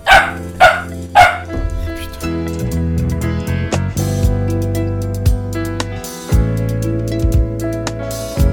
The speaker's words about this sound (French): il y a le chien qui aboie après ma guitare. Arrête Non, non, non, eh, oh, ça va pas aller, hein. Ça, c'est ta sœur. tu vas pas aboyer d'une guitare.